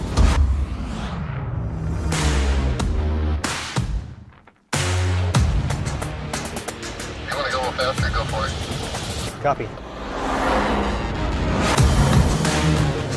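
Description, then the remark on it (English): A pre-production pickup truck with Multimatic DSSV shocks drives hard off-road, its engine roaring and revving loudly with a brief cut in the middle, while voices speak over the noise. “this pre-production truck you see behind me. Let's go see what it'll do.”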